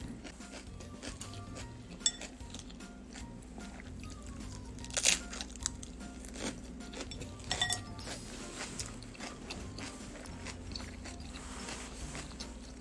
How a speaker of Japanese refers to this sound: これはきゅうりの音です自分で作ったサラダ